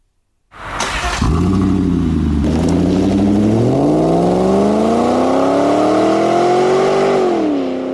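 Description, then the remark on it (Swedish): A Yamaha-built 4.4-litre V8 car engine of 315 horsepower, introduced in 2005, starts with a quick crank, then revs up loudly and steadily climbs in pitch, sustained with a deep rumbling tone before easing off at the end. “2005 presenterades den fantastiska V8.”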